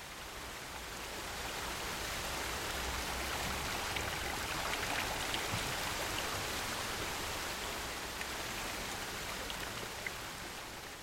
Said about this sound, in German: Der römischste aller Münchner Brunnen. In seiner Mitte der doppelschalige Brunnenkelch. In feinen Fäden ergießt sich das Wasser ins Brunnenbecken.